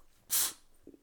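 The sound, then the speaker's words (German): A single sharp sneeze bursts out, loud and hissy, followed by a couple of faint soft sounds and quiet background. “Gesundheit”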